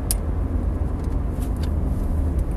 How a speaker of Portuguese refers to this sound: Estou na autostrada, está um carro a sair, estava a demorar a sair.